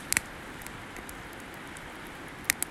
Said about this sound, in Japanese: 多分音が聞こえるんじゃないかなと思うんですけどもここは河原でして河原の脇ですね、えー、で焚き火をしているので川の音がですね背音がすごく聞こえてるんじゃないかなというふうに思います